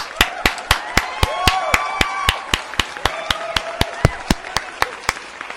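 Steady, rhythmic applause: sharp, evenly spaced claps at about four per second for several seconds, with faint tonal sounds running underneath.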